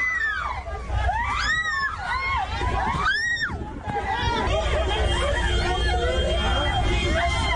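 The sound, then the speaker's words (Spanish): Passengers on a MIO articulated bus in Cali, Colombia, scream in panic as a passerby attacks the bus with stones, damaging its windows: high, wavering shrieks rising and falling over a steady hubbub of crowd voices and background rumble, with a sharp burst of screams around the middle. “Los gritos de los usuarios no se hicieron esperar.”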